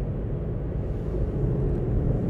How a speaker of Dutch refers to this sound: Ik zit nu in de auto.